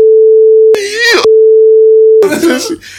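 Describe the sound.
A steady, loud censorship bleep tone at a single mid pitch sounds twice, each time covering bursts of speech, with voices breaking through around and after the beeps.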